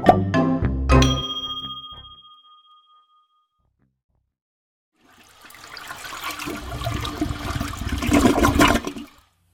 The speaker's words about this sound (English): Now it's flush factor time. Let's see how many flushes it takes to get rid of those sewer serpents.